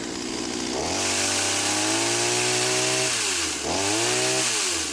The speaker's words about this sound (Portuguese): Aliás, esse aí não é o áudio original da motosserra naquele sábado. Esse aí é fake mesmo, paciência.